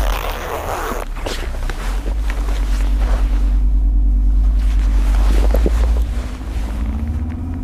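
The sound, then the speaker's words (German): A backpack zipper is pulled open, followed by scattered rustling and handling sounds, all over a steady low rumble like the inside of a moving vehicle. “Ja, im Rucksack hinter dir. Ah, da. Hab ihn. Oh, der ist aber leicht.”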